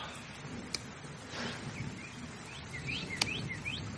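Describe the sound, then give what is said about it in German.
Faint birdsong chirps repeatedly in the background over a low ambient hiss, with a couple of sharp clicks breaking through; no one speaks. “Aber ich habe ja, aber ich habe immer noch Vogelgezwitscher”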